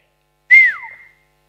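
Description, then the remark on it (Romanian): A single sharp human whistle to get someone's attention, starting bright and then sliding downward as it fades. It is fairly loud, with no talking around it. “Dacă noi ne închipuim din alea cu rugăciuni și cu robe și Nu mă, l-o fluiera.”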